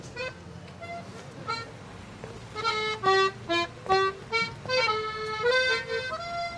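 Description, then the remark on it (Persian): An accordion plays a short, lilting melody of sustained reedy notes, fairly close and clear, over a faint low background hum with no one speaking. “با صدای آکاردون توجهش به اطراف جلب میشه”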